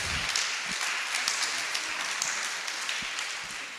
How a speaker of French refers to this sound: et je pense qu'on peut l'applaudir déjà pour ce qu'elle a fait.